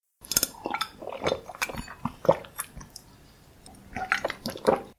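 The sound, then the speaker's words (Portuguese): Very cold water is poured into a glass of ice, with bright clinks and splashy trickling that come in bursts, ease off briefly midway, then pick up again. “Imagine que você acordou e foi tomar um copo de água bem gelado.”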